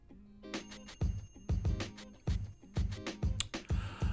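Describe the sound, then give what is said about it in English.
A short, bouncy thinking-music jingle plays alone: a steady thumping beat about twice a second under bright, bell-like chimes and ticking percussion, clear, with no talking. “Thinking music on.”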